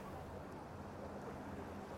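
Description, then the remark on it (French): Soft, steady wash of sea water lapping gently, a continuous low rush without distinct breaks, fairly quiet, with no voices. “le clapotis des vagues est souverain.”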